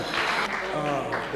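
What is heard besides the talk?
audience clapping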